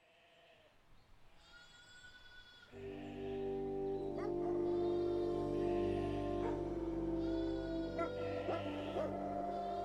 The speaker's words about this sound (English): When you know it, there's no mistaking it. Whether it's heard in New Zealand's paddocks, high country, or urban areas, the noise is utterly distinctive. Those barks, more like sonic booms, heard long before the dogs even come into sight